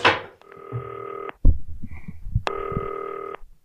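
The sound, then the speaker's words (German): Two long electronic ringback tones of an outgoing call dialed on a green telephone that works with FaceTime sound in a steady repeated pattern, separated by a short gap filled with faint rustling and clicks, clear with no one talking. “Es klingelt. Ich lege den Hörer mal beiseite.”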